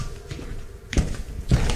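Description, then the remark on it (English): Two heavy footsteps thud across a floor, about half a second apart, moderately loud over a low background hum, as someone gets up and walks over. “Hang on, let me just get up and walk over here.”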